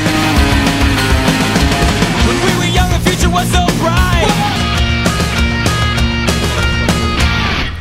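A loud, dense rock track plays continuously, with driving drums, distorted guitars and a sung vocal line, full-band and steady throughout before easing off at the very end.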